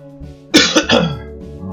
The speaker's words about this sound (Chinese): 不知道为什么？讲一讲，好像咳嗽又比较少。